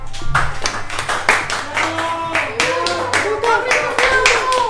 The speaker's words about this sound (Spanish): Tenemos gente en el estudio. A ver, chicos, aplaudan.